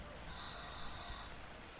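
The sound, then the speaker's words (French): A doorbell rings with a thin, high-pitched electronic tone held steadily for about a second, fairly quiet against a soft background hiss. “Tout excité d'avoir slalomé sous la pluie, il dépose son impatience sur le bouton de la sonnette.”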